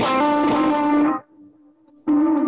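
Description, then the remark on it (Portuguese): A heavily processed electric guitar chord, played through two drives, a pitch effect, two delays and reverb, rings out thick and distorted with chorus-like shimmer, briefly drops to a thin sustained tail, then slams back in loud and saturated. “Tem dois drives ligados, o pitch, dois delays e o reverb.”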